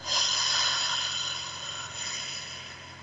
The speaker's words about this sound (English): By putting both feet on the floor, taking a deep breath in through your nose, out through your mouth,